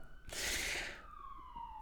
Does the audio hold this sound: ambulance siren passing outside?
yes